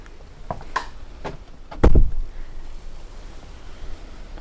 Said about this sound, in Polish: Już widzę, że może być z tym problem, dlatego że dzisiaj jest silny wiatr.